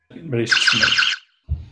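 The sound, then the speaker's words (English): A voice imitates a game show buzzer with a loud, harsh, buzzy drone lasting about a second, followed by a short vocal sound. “So before that, I'd like to hear your buzzers.”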